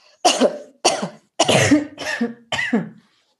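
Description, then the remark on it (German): Five loud, forceful coughs in quick succession, each a sharp burst with short gaps between, coughed while bent forward in a hunched posture, with no talking around them. “Und wenn man mal in dieser vorgebeugten Position einfach dreimal ganz feste hustet, ganz laut.”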